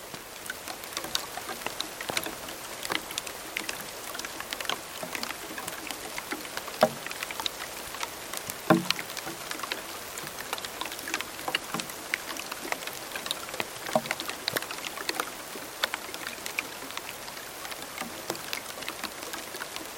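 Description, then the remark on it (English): Steady rain patters on the taut, dry branches of a mopane tree, recorded with tiny microphones taped to the branches, with scattered sharper drops knocking irregularly like uneven, hollow taps over a constant soft hiss. No voices. “The rain falling onto the branches, the branches were so taut and so dry that it sounded like a very poorly tuned uh, marimba or xylophone.”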